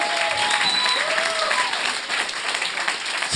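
An audience applauds steadily, a dense wash of many hands clapping at an even, sustained level throughout, with a few faint whistles and cheers rising above it.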